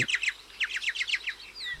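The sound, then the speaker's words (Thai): Myna birds calling in a quick series of bright, chattering notes, each a short downward-sweeping chirp repeated in rhythmic bursts, moderately loud with no voices. “มีเห็บและแมลง เนี่ย มันก็เลยเป็นอาหารของนกเอี้ยงที่ตามควายไปนี่ แหละครับ”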